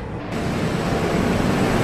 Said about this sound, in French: Il y a plein de rouleaux, c'est une machine énorme qui mesure au moins 20 mètres. Donc ici on est sur le l'arrière de la machine à papier.